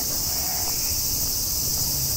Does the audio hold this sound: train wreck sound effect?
no